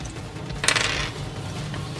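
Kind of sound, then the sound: household object, dice being rolled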